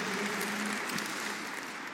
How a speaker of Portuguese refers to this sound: Eu queria que você desse um forte aplauso para eles, para toda a equipe da Eleve, para todos os pastores que fazem parte desse time.